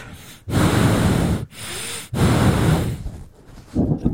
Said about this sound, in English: Can you put your mic down a little bit? We're hearing you breathe.